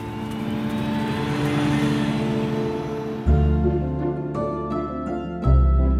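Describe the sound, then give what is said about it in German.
A bus engine drones steadily, then revs up hard twice as it shifts and pulls away, the low rumble loud throughout with no voices. “Und zerrt mich in den Bus rein.”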